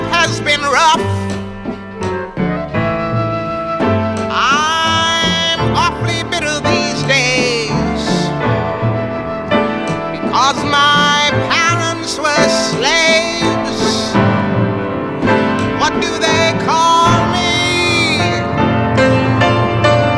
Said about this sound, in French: C'est vraiment …, c'est euh, fort. Ça, fait du bien d'écouter ça, toujours.